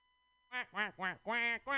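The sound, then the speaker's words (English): A person imitates a duck singing a song, with five quick, nasal quacking sounds in a bouncy rhythm, fairly loud, after a brief silence. “that's an impression of a duck doing uh, the song by the way.”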